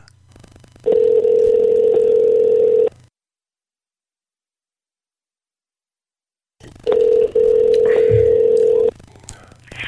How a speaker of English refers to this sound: All right, let's have uh, let's have uh, let's have some fun here by uh, calling uh, Governor Blackface's office.